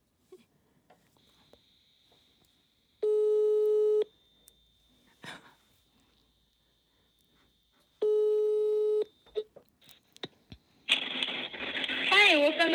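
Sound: telephone ringing tone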